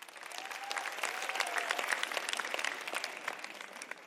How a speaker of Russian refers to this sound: Тут звучат аплодисменты.